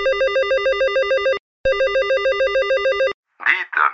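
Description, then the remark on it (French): A telephone rings in two long warbling bursts separated by a short pause, loud and clear, followed by a brief snippet of a voice. It is a call from a gendarmerie in the Manche, France. “Un mois et demi plus tard, une gendarmerie de la Manche appelle.”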